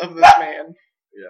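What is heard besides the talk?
dog barking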